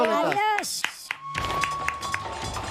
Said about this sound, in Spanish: Ya está. Sí, un aplauso para